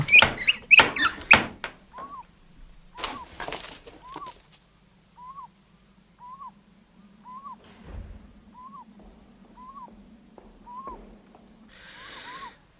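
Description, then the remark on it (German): A heavy metal ring door knocker on a house gate bangs several times in quick succession in the middle of the night, then a few more knocks follow, while a soft repeated hooting call sounds steadily in the background. “Ein Klopfring.”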